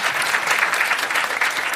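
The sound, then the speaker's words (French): An audience applauds steadily, a dense wash of many hands clapping at a constant, fairly loud level with no voices rising above it. “Par applaudissement, est-ce que vous écouteriez un boys club en anglais ah.”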